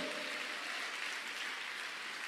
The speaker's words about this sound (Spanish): ¿Cuántos son iglesias grandiosas que le den palmas fuerte al Rey de la Gloria?